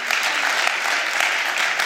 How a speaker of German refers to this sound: Und jetzt sage ich euch, warum ihr wirklich klatscht.